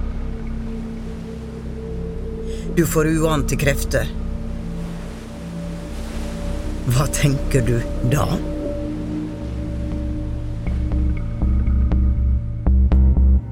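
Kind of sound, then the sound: nature, ocean waves crashing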